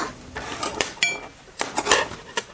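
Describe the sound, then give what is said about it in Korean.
Dishes and cutlery clatter in a series of sharp, bright clinks and knocks, irregular and fairly loud, as breakfast is being prepared in a kitchen. No one speaks. “주방에서 아침을 차리고 있던 아내가 간밤에 아무 일 없었던 것처럼 채근을 했다.”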